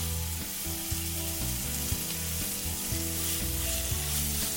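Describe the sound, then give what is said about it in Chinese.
Marinated meat slices being stir-fried in a pan, giving a steady, loud sizzle with a constant bright hiss throughout and faint low tones running underneath. No one speaks. “接下来，将腌制好的肉片放进锅子里炒一炒。”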